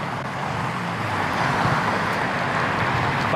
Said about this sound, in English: This is called the West Side Highway. This is a highway. And they've been doing 60, 70 miles an hour down here.